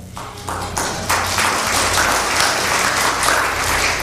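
An audience breaks into applause, starting with a few scattered claps and quickly swelling into a dense, steady roar of clapping that holds loud and even to the end.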